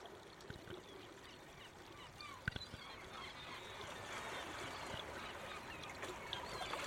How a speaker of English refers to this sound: In the distance, you can hear seagulls make their way home to roost for the evening.